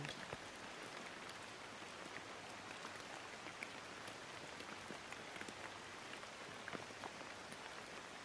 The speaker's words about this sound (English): Imagine how the rain interacts with the landscape, bouncing off leaves, drizzling over rocks, creating subtle harmonic waves through the sky as the rain is carried on the wind.